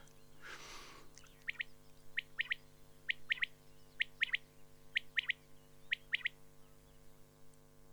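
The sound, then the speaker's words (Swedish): A common quail calls repeatedly in sharp three-note phrases, each burst quick and liquid, repeated about once a second against a quiet night background with a low steady hum. The far-carrying call is made as the birds walk about in the grass on light summer nights. “Ljusa sommarnätter så går de omkring i gräset och, låter så här.”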